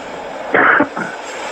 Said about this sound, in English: Hold on, this train going by.